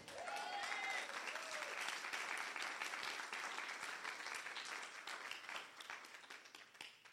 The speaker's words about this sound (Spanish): ¿Cuántos alaban al Rey? Si le va a aplaudir, apláudale.